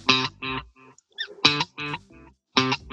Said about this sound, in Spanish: Que la gracia que tiene este eco es que repite exactamente. Este es como un eco de una pieza, ¿cachai? Pero este eco repite exactamente lo que yo toqué, pero lo repite un poco después, ¿cachai?